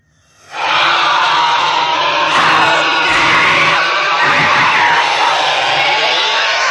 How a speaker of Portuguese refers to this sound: E aquela última criatura que não queria se engajar nesse projeto de igualdade entre as pessoas, Joaquim, foi subjugada por um grito horrendo.